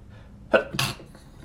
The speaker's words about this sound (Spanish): Ay, perdón, estornudé.